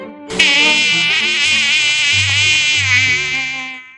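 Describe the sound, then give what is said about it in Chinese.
A steady, high-pitched mosquito whine starts abruptly and drones on continuously for several seconds, rich in buzzing overtones, with a low musical tone underneath. “可蚊子偏不服气，它向动物们宣布将向狮子挑战。”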